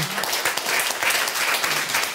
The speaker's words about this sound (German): Nämlich die Osteuropa-Spezialistin des Deutschlandradios, Sabine Adler, ist zum Glück wieder heute bei uns. Applaus